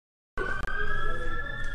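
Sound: ambulance siren passing outside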